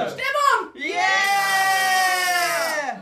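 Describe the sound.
A lone voice imitates roaring football fans: a short shout, a brief pause, then a long, loud, sustained bellow held steady for about two seconds.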